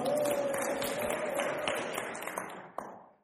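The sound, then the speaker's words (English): A crowd claps and cheers together in a dense burst of applause, with a high held shout rising over it, then the clapping thins out and fades away. “Can we cheer for the curry this morning? Come on.”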